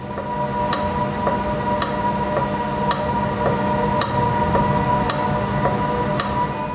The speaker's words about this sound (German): Also ich würde sagen, das ist die kaputte Version. Also ich hätte das nie erraten, aber du liegst 100% richtig. Auch das Ventil ist kaputt.